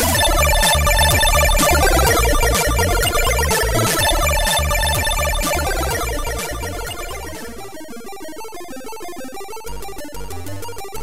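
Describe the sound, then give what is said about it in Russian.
Bright, buzzy ZX Spectrum demoscene chiptune music from a 1994 megademo, with fast square-wave arpeggios over a steady, driving beat, loud and dense at first, then thinning into sparser, chirpy bleeps toward the end. No voices. “Семнадцатый выпуск подкаста о чиповой музыке на zx-spectrum”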